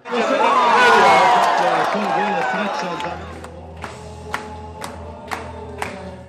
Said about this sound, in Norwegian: I Sarajevo sentrum feirer publikum at Edin Dzeko har banka inn 1-0 mot Iran på storskjermen.